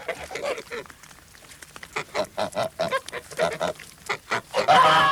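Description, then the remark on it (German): A gander honks in a rapid series of nasal calls, coming in uneven bursts that grow louder and end in a harsh, sustained honk. “und ich hab Lose gezogen und dann hab ich ein ganz kleines Küken gewonnen. Ein Gänserich.”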